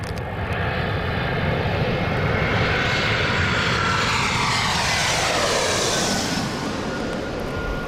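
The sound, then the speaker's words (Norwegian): A passenger airplane roars steadily overhead, its broad engine rumble swelling and shifting in pitch as it passes, loud and continuous with no voices. “Da jeg var liten, syntes jeg det var veldig fascinerende å se passasjerfly fly over himmelen.”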